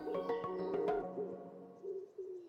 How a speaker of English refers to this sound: The sound of a wood pigeon that call, it so typifies my parents' garden.